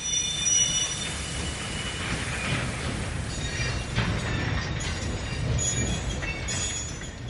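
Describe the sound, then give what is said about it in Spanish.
An ordinary train, sealed from the outside and carrying deported German Jews from Hamburg, rolls steadily along the rails with a continuous low rumble, while high, thin metallic squeals from the wheels ring out over it, with no voices. “Por la mañana nos llevaron a los trenes, trenes normales.”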